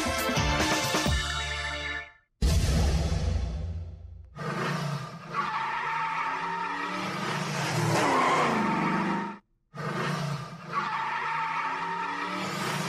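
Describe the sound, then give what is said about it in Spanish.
Loud tire screeching from racing cars, sustained squeals with engine roar, broken by a few brief pauses between bursts. “Bueno, a pesar de eh, este sonido casi, casi, casi que entrae hasta, nuestras, hasta nuestro olfato, el olor a llantas quemadas.”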